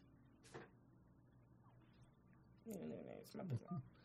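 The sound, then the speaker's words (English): A woman picks up and answers her phone: a sharp click early on, a quiet stretch, then muffled voices and handling noise starting partway through. “She's answering her phone in the middle of the podcast.”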